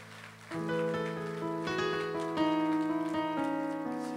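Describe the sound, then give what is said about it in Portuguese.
An audience at a church service claps for the life of the person beside them, a dense, crackling wash of applause that runs for several seconds beneath sustained keyboard chords that shift every second or so. “Então olha a pessoa do seu lado, dê uma salva de palmas pela vida dela aí.”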